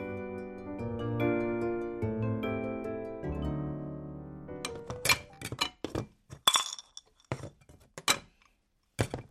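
A sustained, ringing tonal hum gives way to a flurry of sharp metallic clinks and clanks, irregular and fairly loud, as pots and pans are shifted and knocked together while a man rummages through them for a frying pan to cook with at two in the morning.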